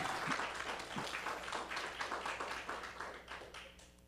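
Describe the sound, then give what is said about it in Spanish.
Sustained applause from a crowd, a dense crackle of many hands clapping steadily for about four seconds, fairly even in loudness with no voices standing out, given as applause to the Lord. “Le damos un fuerte aplauso al Señor, aleluya.”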